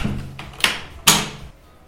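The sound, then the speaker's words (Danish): The door of a very small toilet slams shut: a lighter knock followed moments later by a louder, sharp bang, with a faint low hum in the background and no talking. “Det første, jeg siger, da døren smækker, er, at jeg ikke vil have sex med ham.”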